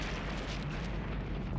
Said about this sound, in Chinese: 爆炸的气浪伴着烟雾从洞口一下子涌了出来